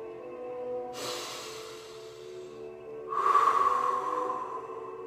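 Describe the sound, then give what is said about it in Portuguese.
Two long, deep breaths drawn in, filling the lungs, the second louder and airier, over a soft, steady background hum of sustained tones. “E respirando profundamente o ar, enchendo os nossos pulmões de oxigênio,”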